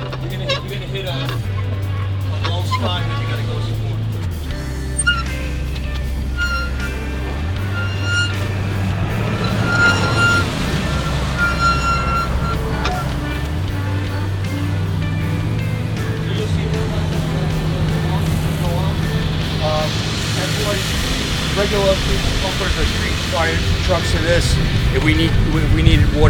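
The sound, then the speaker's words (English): A water tanker truck's big engine idles with a steady low drone that shifts pitch in slow steps, while a continuous rushing hiss of water builds underneath as the tank fills toward 3,000 gallons, growing louder toward the end. “But this is going to take me anywhere from uh, eight to ten minutes to fill up at 3,000 gallons.”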